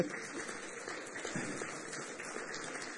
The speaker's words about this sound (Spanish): damos un aplauso a Dios por este día? Aleluya.